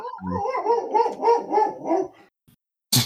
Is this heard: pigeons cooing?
no